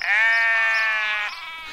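A single loud goat bleat, sustained for over a second with a steady, nasal, wavering tone before tapering off, heard alone with no talking.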